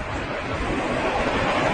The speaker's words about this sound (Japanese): ちょっと電車が通ってしまったのでうるさいです。ごめんなさい。